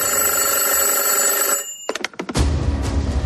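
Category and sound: signal or alarm, telephone ringing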